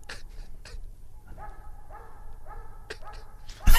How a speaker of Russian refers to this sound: Давайте чуть-чуть послушаем на тишине, как лает собака. Давайте. Нет, собака лает, а, а хозяин не откликается.